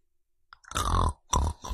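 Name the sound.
voice imitating snoring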